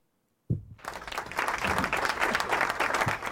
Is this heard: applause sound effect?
yes